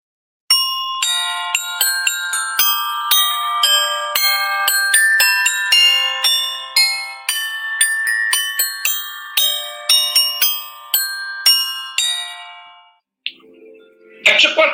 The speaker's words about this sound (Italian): Le campane del presepe suonarono la mezzanotte.